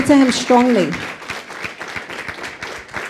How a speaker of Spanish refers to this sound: Dele ese fuerte aplauso, por favor, a Dios. Pero déselo fuerte.